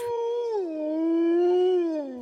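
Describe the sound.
A child's voice imitates a wolf howl, one long sustained wavering cry that dips slightly in pitch and holds steady for about two seconds, clear with no other sounds.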